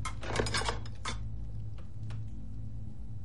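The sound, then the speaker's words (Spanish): A woman sets her plate down on a table with a cluster of clinks and scrapes of crockery in the first second, followed by faint, sparse ticks over a steady low hum. “Deja su plato en una mesa.”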